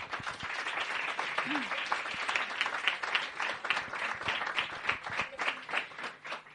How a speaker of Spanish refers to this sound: Un aplauso para todos, por favor.